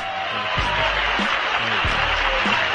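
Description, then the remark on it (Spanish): Sparse, scattered clapping from a small audience, a steady patter of hand claps at moderate loudness with a low voice-like murmur underneath. “Agradezco estos aplausos tan desnutridos, a la par que merecidos, que me incitan a seguir discursiando.”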